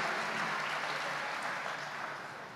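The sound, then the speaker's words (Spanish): An audience applauds, a dense, steady wash of many hands clapping at once. It stays fairly loud throughout and eases off slightly toward the end, with no voices heard over it. “Eso lo puede aplaudir.”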